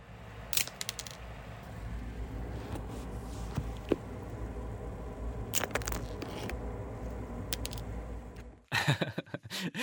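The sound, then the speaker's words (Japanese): Dry pasta is snapped in half so it fits a small pot, in a handful of sharp, brittle cracks spaced a few seconds apart over a steady low hum, ending in a quick flurry of crackly breaking sounds. “パスタを折る音鍋が小さいのでパスタは折らないと、えー、使えないんですがイタリア人の方が見たら怒るそうですちょっと聞いてみましょう”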